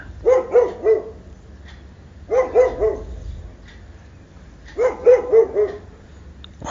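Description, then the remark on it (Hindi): Dogs bark in three quick bursts of three or four sharp barks each, separated by short pauses, clear with no voices over them, beside a road in Uttar Pradesh, India, just after the street lights suddenly go off. “अचानक street light जो जल रही थी बंद हो जाती है कुत्ते भौंकना शुरू कर देते हैं”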